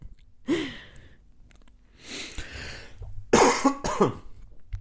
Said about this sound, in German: Entschuldigung. Ich muss meine äh, Antwort von eben korrigieren. Ich huste doch anscheinend häufiger.